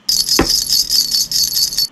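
A continuous metallic jangling and rattling as toy building blocks are thrown into bottle lids, with one sharper knock near the start, lasting about two seconds with no voices.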